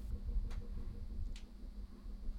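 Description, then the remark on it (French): Two brief, faint clicks from a swiveling chair, about a second apart, over a steady low hum with no one talking. “oui, c'est ma chaise. Parce que quand je tourne, ça fait.”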